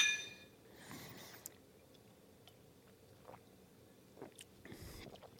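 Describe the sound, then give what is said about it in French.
Quiet sipping and swallowing of beer from glasses as people raise their glasses in a toast, with soft wet mouth sounds scattered over a few seconds and a faint clink of glass early on; no one speaks. “Ah, non, mais mères monoparentales, on lève notre verre. on va une gorgée aux mères monoparentales qui s'occupent seules de leurs enfants.”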